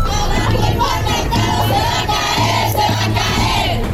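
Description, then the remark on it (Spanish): Hundreds of women chanting and shouting together at a street march through the capital of Colima, protesting femicides and insecurity; a continuous loud roar of many voices with rhythmic surges, with no single voice standing out. “En Colima, cientos de mujeres de colectivos, así como otras que no pertenecen a los mismos, salieron y tomaron las calles de la capital para protestar por los feminicidios, por la inseguridad”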